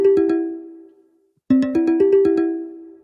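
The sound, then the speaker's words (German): A Telegram app incoming call ringtone plays a bright, chiming melody of quick notes, pausing briefly before repeating the pattern; it rings clearly with no talking over it. “Ah, das war ein Telegram-Call”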